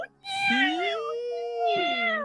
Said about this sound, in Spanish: Es, terrible. Son las peleas de gatos.